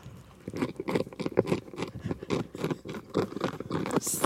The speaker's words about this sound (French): Eh bien non, c'est une chenille qui grignote une feuille.